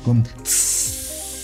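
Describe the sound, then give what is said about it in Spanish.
A voice imitates potatoes sizzling in a pan: a short voiced grunt, then a loud, steady, high-pitched hiss sustained for about a second before trailing off. “Oye, este, ¿sabes cómo hacen las papas cuando las estás friendo?”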